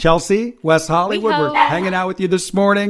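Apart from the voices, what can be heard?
dog barking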